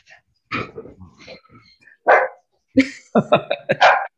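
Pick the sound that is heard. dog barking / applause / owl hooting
dog barking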